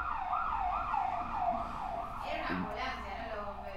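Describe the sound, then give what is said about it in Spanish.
A fire engine siren wails in steady rising-and-falling sweeps in the background as firefighters pass by, moderately loud over road noise, as a voice begins speaking near the end. “Bueno, esa, esa, no sé si se escuchará en el micrófono, pero están pasando los bomberos de fondo.”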